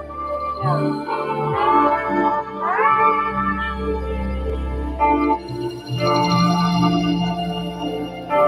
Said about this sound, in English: This is cool. So, are you on keyboard doing that, or is that what your your contribution? Yeah, there's like slide guitar in there. There's guitar. There's the keyboard. A bunch of different stuff.